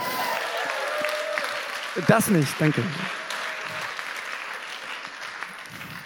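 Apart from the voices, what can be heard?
audience applause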